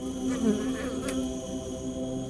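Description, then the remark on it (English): Honey bees buzz, a steady droning hum with a few individual bees swelling louder as they pass the microphone, then fading, with no talking. “By carefully placing our binaural mic, you can hear a few individual bees buzz past.”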